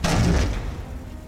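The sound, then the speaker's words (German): A chair crashes to the floor in one loud, heavy impact, a booming thud with a brief clatter that quickly fades into a low rumble. No voices. “Krachend geht der Stuhl zu Boden.”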